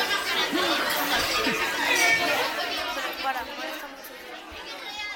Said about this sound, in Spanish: Bueno, cuéntanos, ¿qué se cuece por la cafetería? Bullicio. Ya se oye, sí.